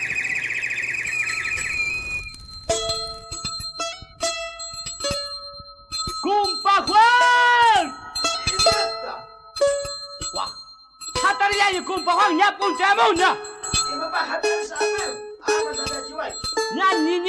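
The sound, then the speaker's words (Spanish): A lively Bolivian Christmas carol performed by a music group, with bright ringing bells that jingle steadily over a melodic tune. Sharp metallic strikes come and go in a loud, bouncy rhythm. “Escuchemos a … interpretando la canción Huachitorito, Cumpa Juan”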